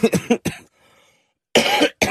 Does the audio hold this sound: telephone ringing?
no